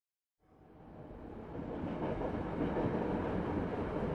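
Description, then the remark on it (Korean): A rocking train rattles steadily along the rails on a journey to Almaty, its dense rumbling noise swelling in after a brief silence and holding loud, with no voices present. “우리는 기차를 타고 알마티로 갔는데 어린 나의 뇌리에 깊게 새겨진 흔들리던 기차의 소음과 창문 밖으로 쉴 새 없이 변하던 풍경들을 떠올리면 여전히 가슴 한쪽이 아릿해짐을 느낀다.”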